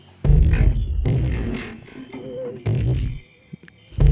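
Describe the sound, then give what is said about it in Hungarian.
A musical saw sings a wavering, sustained tone within a played music track, its gliding pitch rising over a dense, full backing arrangement at moderate volume. “Hallom benne a fűrészhegedűt.”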